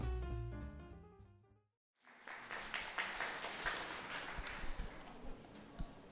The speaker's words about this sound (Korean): 아, 매번 적응이 안 돼요 일단. 네. 왜냐면 박수 칠 일이 아니었는데 박수를 친 거기 때문에 처음에 이상한 거예요 매번.